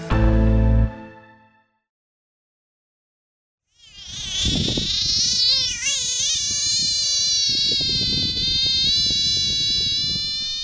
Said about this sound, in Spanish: Era, un sapo, un sapo que suena como un bebé llorando. Pero suena igual, Suena igual, suena igual.